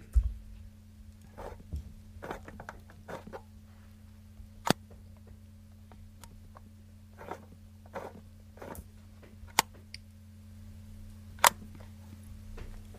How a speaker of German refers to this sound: Das war eine Aqua Box 44. Erst Film weiterdrehen, dann der normale Auslöser, circa eine 30. Sekunde.